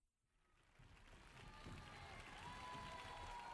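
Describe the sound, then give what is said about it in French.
A crowd bursts into applause for Shihiro, the clapping swelling from a faint start into a steady, dense roar of many hands that holds strong to the end. “Toute la foule applaudit Shihiro.”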